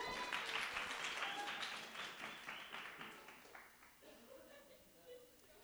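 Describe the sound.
A crowd bursts into steady, dense applause that holds for a few seconds, then thins and fades, with a voice or two emerging briefly as the clapping dies away.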